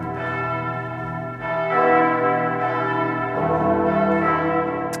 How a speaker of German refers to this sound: Glocken vom Berner Münster. In den letzten zwei Wochen sind sie aber stumm geblieben.